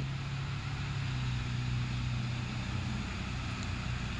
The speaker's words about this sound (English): Fucking loud ass bike shit.